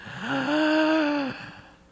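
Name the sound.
imitated labored gasping breaths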